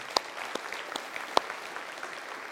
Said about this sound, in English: So could we just welcome him with some applause? Is that okay?